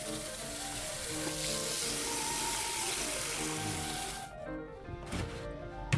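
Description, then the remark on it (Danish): A tap runs in a steady rushing hiss for about four seconds to get hot water, then cuts off, leaving quieter surroundings with faint tonal sounds in the background. “Så løber vandhanen løbe, så jeg har varmt vand.”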